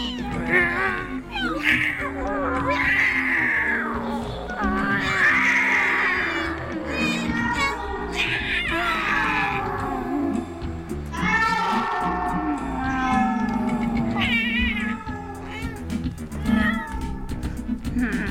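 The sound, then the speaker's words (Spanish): Several panicked cats yowl and meow frantically, crouched in front of the closed door of a sub-basement after rushing down several flights of stairs; their drawn-out, wavering cries overlap in a loud, continuous chorus with rising and falling pitch and no pauses. “en busca de una desconocida fuente de alboroto que había sumido a todos los gatos en un tremendo pánico y les había hecho bajar precipitadamente varios tramos de escaleras y agazaparse aullando frente a la puerta cerrada del subsótano.”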